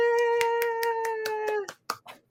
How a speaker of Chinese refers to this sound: 给自己掌声鼓励。